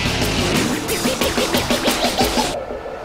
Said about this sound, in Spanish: El rugir de los motores llega a juego limpio con la Fórmula 1 y más.